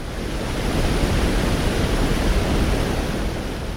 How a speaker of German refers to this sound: Denn neben der Schleuse rauscht die Aller über einen Stauwehr, ein künstlicher Wasserfall, gerade mal anderthalb Meter hoch.